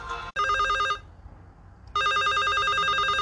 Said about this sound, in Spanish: Está sonando el teléfono y eso quiere decir que tenemos un radio escucha del otro lado.